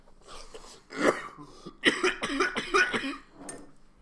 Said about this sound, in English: Every time I cough, I get a little like sweeter taste from the OG.